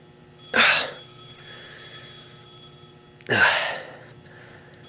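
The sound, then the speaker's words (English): A telephone rings in two separate bursts a few seconds apart, fairly loud, with a short high chirp between them and quiet in the gaps. “Phone stop ringing.”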